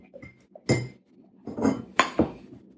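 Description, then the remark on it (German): A few glass clinks, about four sharp bright taps at irregular intervals, like glassware knocking against dishes, with faint handling noise between them and no talking. “Ist ein Glas? Ja.”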